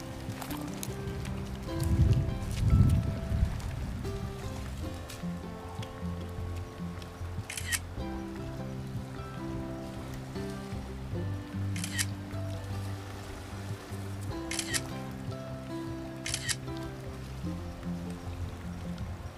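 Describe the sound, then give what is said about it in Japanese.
Several sharp camera shutter clicks snap out at irregular intervals, bright and brief, as photos are taken of a scenic view, over a steady low rumble of outdoor background noise. “いいねこの景色いい景色だね撮って写真撮って”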